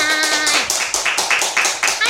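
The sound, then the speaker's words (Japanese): Brisk, steady applause from a small group, fairly loud, welcoming guests onto a radio show, with a brief voice at the start before the clapping carries on alone. “拍手でお迎えください”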